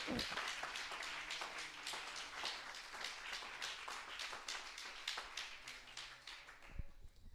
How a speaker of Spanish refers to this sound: Denle un aplauso al Señor, hermano, esta mañana.